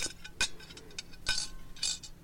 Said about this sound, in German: du räumst dein Geschirr weg